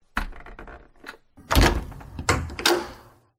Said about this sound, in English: Ah, hang on a sec, the door's jammed.